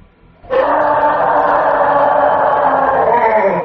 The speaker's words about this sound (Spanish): Oigo otra vez ese grito a lo lejos.